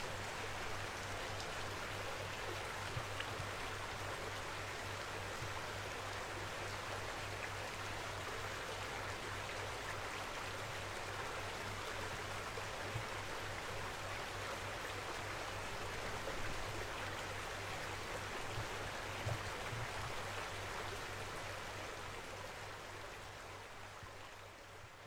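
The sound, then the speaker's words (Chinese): A mountain stream, recorded by hand while standing on a stone in slippers, rushes steadily for the whole stretch, a dense, even hiss of flowing water with no talking and no pauses, only slight swells in loudness. “给大家听一会儿这个溪流的声音，然后我们就 上去看星星了。”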